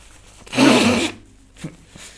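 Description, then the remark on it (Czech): A man blows his nose after laughing: a single loud, breathy blow lasting about half a second, a rough hissing gust, followed by a couple of faint sniffs or small rustles. No one speaks. “Já se musím vysmrkat, protože jak se, jsem se smál.”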